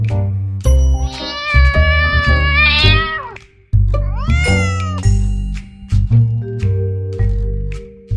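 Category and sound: animal, cat meowing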